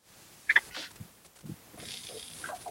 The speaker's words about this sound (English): Oh, um, well, that was my that was my whimper.